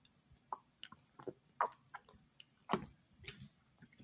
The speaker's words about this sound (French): Et je me resserre une petite gorgée d'eau. Allez vous servir un truc à boire aussi le temps que je bois